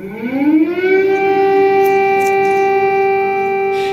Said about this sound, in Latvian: Gaisa trauksme šorīt skanēja centrālajā Ukrainas daļā un Kijivas apgabalam uzbrukts ar droniem pašnāvniekiem.